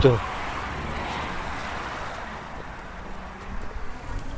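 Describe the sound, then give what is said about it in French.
A steady, muffled rumble of a car driving along the country roads of Parthenay, engine and road noise holding even throughout, with a brief voice fragment right at the start. “Bon, là, j'ai repris la voiture pour les routes de Parthenay.”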